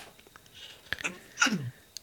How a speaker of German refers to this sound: Ich muss schon wieder niesen. Ja, nies mal. Oder doch nicht?